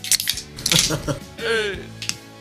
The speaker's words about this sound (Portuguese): A gente vai abrir nossas latinhas. Pera aí, que é sempre um momento. Eu sempre acho que vou quebrar minha unha. Ou quebrar meu dedo abrindo latinha. Vamos lá em 3, 2, 1. Vai!